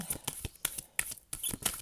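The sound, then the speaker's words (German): A deck of cards being shuffled and rustled during a card reading: a quick series of crisp, papery flicks and riffles in uneven bursts, with no talking. “Ich hol, du raschelst mit der Karte. ja. oh, einmal ein bisschen mischen.”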